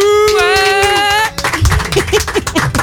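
A sustained musical tone holds for just over a second, then breaks into the dense, crackling applause of a live show audience welcoming a guest, with scattered short whoops and cheers rising above it.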